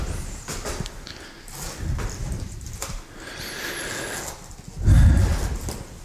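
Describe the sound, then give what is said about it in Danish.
Footsteps climbing a staircase, a steady series of dull thuds and scuffs with a heavier, louder step near the end, and no talking over them. “her på vej op ad trappen, hvor man jo lige kan sidde og få sat hvil”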